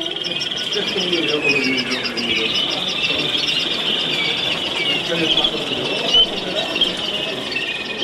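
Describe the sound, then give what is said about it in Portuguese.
A Malinois waterslager canary, a breed from Belgium, sings continuously at a canary exhibition with sweet, rolling warbles and trills, loud, over a steady murmur of indistinct background voices and other chirping birds. “Os Malinu são originários da Bélgica e têm um piar considerado mais doce.”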